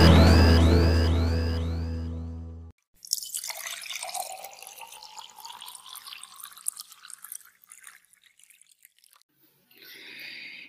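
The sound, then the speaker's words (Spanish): Drinking water pours steadily into a glass for several seconds, its pitch rising as it fills, after a short tonal jingle; a brief separate sound follows near the end, with no one talking. “Bueno, ya para finalizar y luego de tomarme un buen sorbo de agua potable que me acabo de servir”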